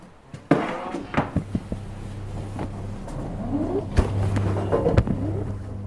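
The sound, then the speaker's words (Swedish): Heavy courthouse doors being opened at almost exactly eight o'clock: several sharp clunks and knocks over a steady low mechanical hum, with scattered ambient noise and no one speaking. “Nästan prick klockan åtta öppnar tingsrätten dörrarna.”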